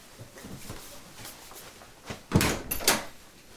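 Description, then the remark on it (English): A few sharp mechanical clunks and clicks as a lock is turned and a door latch releases, then the locked door swinging open. The sounds are fairly loud over a quiet, rumbling background with no talking. “Open the fucking door.”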